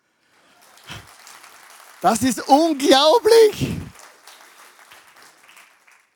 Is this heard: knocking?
no